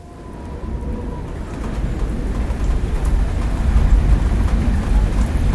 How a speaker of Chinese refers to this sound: 一整晚风大雨大，雨水敲打着铁皮屋顶，一下咚咚咚，一下哐哐哐。